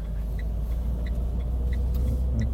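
vehicle, car interior road rumble

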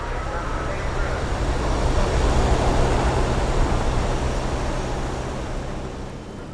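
vehicle, rocket engine roar

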